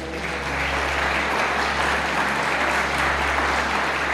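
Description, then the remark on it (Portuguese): A large church audience applauds the Lord steadily, a dense wash of clapping that stays loud and even throughout, with a low hum underneath and no voices standing out. “Pode aplaudir o Senhor, porque Ele é bom.”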